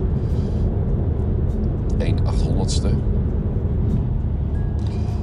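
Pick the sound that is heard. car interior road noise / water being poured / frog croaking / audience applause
car interior road noise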